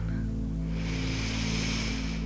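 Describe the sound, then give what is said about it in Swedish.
A long, steady inhale through the nose during a mindful breathing exercise, a soft airy hiss that swells and holds for a couple of seconds over a low, sustained musical drone. “Så andas vi in”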